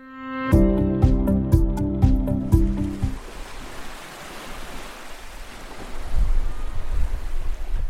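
A short burst of rhythmic musical notes gives way to a steady, broad rushing of waves and wind on the beach at Saint-Brévin-les-Pins, a town opposite Saint-Nazaire in Loire-Atlantique, on a sunny July morning, with no talking.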